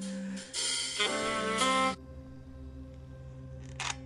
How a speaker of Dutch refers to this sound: Nou, kwam er toch een telefoontje tussendoor? Ja, dat kan zomaar gebeuren.